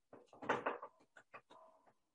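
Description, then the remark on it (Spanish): A door handle jiggles and clacks several times in quick succession, as if someone were trying to open the door, a short burst of metallic rattling and clicks that fades into a few softer taps, fairly quiet with no talking. “es cierto, sí, sí, sí, como que se movió la manija, ¿no?”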